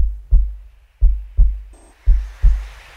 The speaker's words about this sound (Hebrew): אפשר לשלוט בעוצמה ובתדרים, כלומר באופי של כל אחד מהצלילים האלה, ולתת להם מקצבים בגבולות הדמיון ומחוצה לו. בעזרת ארבעה ערוצי קול אפשר להלחין ולבצע רביעייה. לפעימות לב,